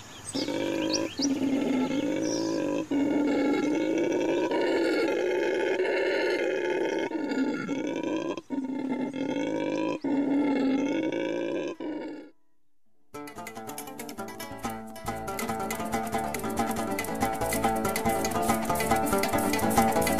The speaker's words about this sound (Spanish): el llamado del mono aullador que, como la tradición indica, llama el agua. Suenan con un sonido gutural tan curioso que, para los que no lo conocen, podría ser aterrador.